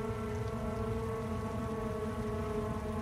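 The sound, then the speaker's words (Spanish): Heavy rain pours down around midnight on an empty street at a bus stop, a steady, dense hiss that never lets up, with a low droning hum running underneath. No one speaks. “Seguía lloviendo demasiado fuerte ya no había gente en la calle.”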